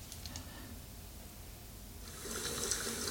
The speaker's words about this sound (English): Oh, now water's running.